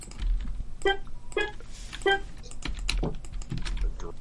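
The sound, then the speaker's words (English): Rapid computer keyboard typing and mouse clicks, moderately loud, as someone copies, pastes, deletes and shifts things over, with a few sharper tonal clicks early on and a steady patter of keystrokes throughout. “to listen, listen to the clicks.”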